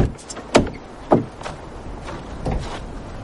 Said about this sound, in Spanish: Él abre la puerta del coche.